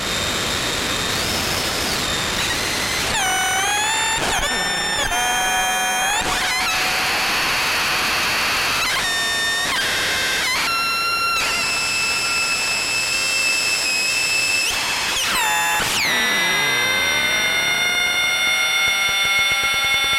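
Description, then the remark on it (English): A synth module switched to the third of its three modes drones loudly and continuously, its buzzing harmonic tone jumping abruptly between pitches, then sliding into sweeping, bending tones near the end, with no voices. “This here, there are three modes. You can flip through with this switch. That's type 3.”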